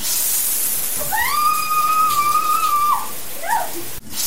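Shower water hisses steadily from start to finish, a loud, even rush. A sustained mid-pitched whistling tone rides over it for about two seconds, followed by a couple of brief chirps.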